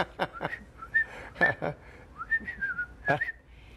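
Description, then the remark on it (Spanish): A person whistles a short, bouncy folk melody, the notes thin and a little shaky, broken up by breathy, airy bursts between phrases. “mi papá nos silbaba, la raspa la aprendí, en México cuando fui, hacía, es que no sé silbar muy bien”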